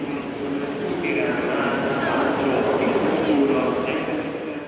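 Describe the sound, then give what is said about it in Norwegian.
A steady rumble of a passenger train on the way from Seger to Budapest, heard from inside the carriage, with continuous rolling noise and faint indistinct voices in the background. “På toget fra Seger til Budapest er kanskje tre av dem.”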